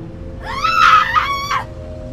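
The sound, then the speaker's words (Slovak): A single shrill scream from a girl outside in front of a house rises sharply, holds for about a second, then cuts off, heard over a low steady background hum with no speech. “Brat dievčaťa, ktorý začul výkrik pred domom, pribehol ku dverám a otvoril ich.”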